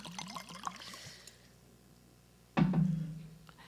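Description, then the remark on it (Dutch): Liquid pours into a glass with a quick series of rising gurgles, then quiet follows. A louder, abrupt slurp or gulp comes near the end as a drink is taken. No one speaks. “Nu ga ik even een slokje drinken”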